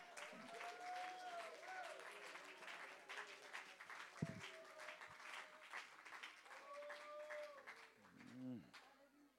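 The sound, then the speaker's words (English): A crowd of people claps hands in praise to the Lord in sustained, dense applause, with scattered voices calling out and cheering over the steady patter. “Why don't we give the Lord a hand clap of praise right here for right now?”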